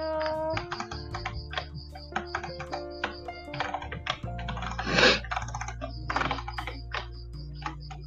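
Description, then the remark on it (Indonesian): Rapid, irregular, sharp clicking from a computer mouse as someone scrolls, repeating steadily throughout with no one speaking, over a low electrical hum. “ada suara-suara gertak-gertak ya iya ada suara gertak-gertak bos aku itu kakak oh mosnya, oh, iya baik oke okay.”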